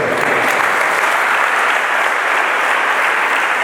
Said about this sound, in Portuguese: Aplauda o Senhor nesta noite.